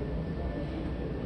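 A steady, dense low rumble of aircraft noise fills the air at Haneda Airport, with a faint high whine on top, holding at an even level throughout the brief moment with no voices.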